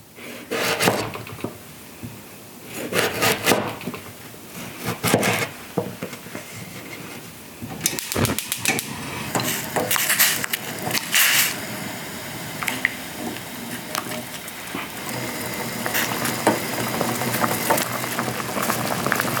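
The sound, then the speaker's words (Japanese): Sweet potato miso soup cooking on the stove, with a steady bubbling simmer broken by scattered wet squishes, clinks and knocks of kitchen utensils and pots. No one speaks. “今朝は秋の味覚さつまいもで作るお味噌汁のいい音それではお聞きください”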